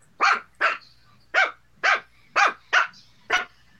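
A puppy barks seven times in quick, fairly regular succession, each bark sharp and loud, with no one speaking over them.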